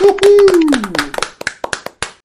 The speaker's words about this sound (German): Und wenn das kein SK-Podcast-Applaus wert ist, dann weiß ich auch nicht. Auf geht's!